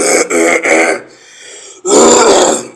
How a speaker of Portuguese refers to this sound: Eu tô com um pouco de pigarro aqui, se não foi uma sonoplastia proposital não.